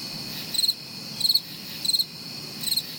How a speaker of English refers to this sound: Well, it's the crickets again.